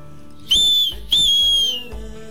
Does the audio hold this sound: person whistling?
yes